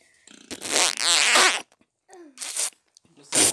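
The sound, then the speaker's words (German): A voice imitates a wet, sputtering fart: one long, loud, spluttering blast, then a few shorter, juicier bursts with brief pauses between them. “Warte, ich mach so, ich mach so ein, so ein feuchten.”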